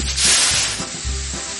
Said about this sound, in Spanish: Era una cerveza bastante refrescante, con una carbonatación tan elevada que en el momento de abrir un barril lo que pasaba es que se generaba un sonido similar al del vapor a presión.